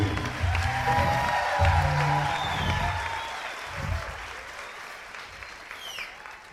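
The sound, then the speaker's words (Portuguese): An audience at a church gathering breaks into sustained applause welcoming pastors, a dense wash of clapping with some cheering mixed in, strong at first and then gradually fading over several seconds. “Peço que recebam agora um forte aplauso e muito carinho os pastores”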